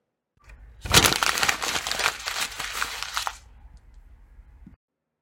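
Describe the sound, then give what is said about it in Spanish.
A sheet of paper is crumpled and handled, a loud burst of dense crackling and crinkling for a few seconds before fading to quieter rustling. “En la actividad, la fuente sonora era la hoja de papel y pudiste reconocer algunos de los sonidos que puede emitir esta fuente sonora.”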